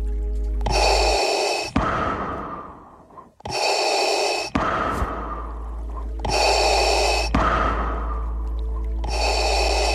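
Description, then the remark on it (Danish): A voice imitates Darth Vader's heavy mechanical respirator breathing for a Dark Side meditation, four slow, loud, hissing inhale-exhale cycles in steady rhythm with a low hum underneath. “Og det er The Dark Side Meditation med Darth Vader.”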